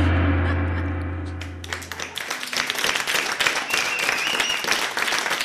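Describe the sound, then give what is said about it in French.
A sustained low musical chord fades out, then an audience breaks into dense, steady applause for an improvised theatre performance, many hands clapping together loudly and continuing to the end. “Alors vraiment, on peut encore les applaudir.”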